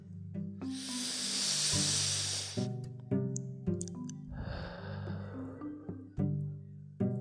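Slow, deep breathing in a three-movement breathing coherence exercise: a long hissing inhale followed after a pause by a softer, airy exhale, over a steady, low droning musical tone with occasional plucked notes.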